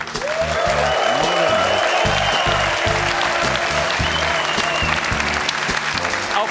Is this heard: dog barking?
no